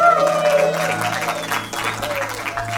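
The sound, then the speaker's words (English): A crowd at V1 Church applauding steadily, dense overlapping clapping at a loud, even level for a few seconds, with faint tonal sounds underneath at the start. “Can we all just give it up for everyone listening to the podcast right now?”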